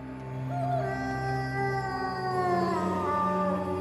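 Several wolves howl together around a house in the early hours before dawn, in long, overlapping wavering tones that rise and glide, a loud, continuous chorus lasting a few seconds with no talking.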